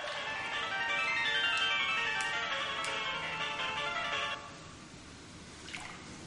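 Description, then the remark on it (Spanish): A melodic mobile phone ringtone plays clearly for about four seconds over bubbling, splashing water in a jacuzzi, then cuts off as a man in the jacuzzi picks up the phone and opens it, leaving the water sounds and a faint click. “Coge el teléfono y lo abre.”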